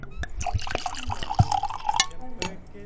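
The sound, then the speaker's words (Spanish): Pouring of white wine into a glass: a few seconds of gurgling, splashing liquid with quick glugs and bright clinks as the glass fills. “te estoy sirviendo una copita de un vino blanco para hacer la, despedida, porque siempre que hay calor, el vino blanco es tendencia”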